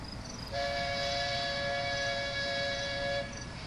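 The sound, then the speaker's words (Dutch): An approaching freight train sounds one long, steady horn blast lasting a few seconds over a continuous low rumble of rolling wheels, loud, with no voices. “Daar is de goederentrein.”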